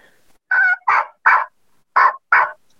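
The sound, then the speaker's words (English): A series of five raspy turkey yelps made on a diaphragm mouth call, fairly loud, in two groups of three and two with short gaps between, no talking; the rasp comes from the overhang of the call's cut. “That's your rasp.”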